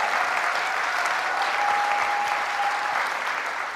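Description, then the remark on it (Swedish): An audience claps steadily for several seconds as a group of disciples comes up to the front, a dense, even wash of many hands at a constant loudness, with a faint thin tone sustained in the middle. “Ni kan komma upp medan de andra applåderar hur eh, fantastisk den är.”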